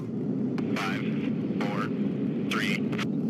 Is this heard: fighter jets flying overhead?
yes